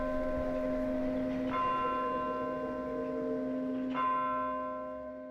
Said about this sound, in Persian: وقتی اتوبوست راه افتاد و رفتی ساعت مارکار شش بار زنگ زد و هنوز هر روز غروب صدای زنگش شش بار دنگ و دنگ تو سرم میپیچه